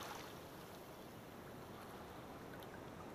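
Steady, continuous sea waves wash and rumble without pause, a broad, even surf sound with no distinct breaks, and no voices present.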